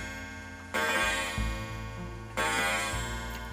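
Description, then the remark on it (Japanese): A clock sounds with two loud, sharp beats about a second and a half apart, each leaving a lingering ring over a steady low background hum. No one speaks. “ちょっと時計待ちますね”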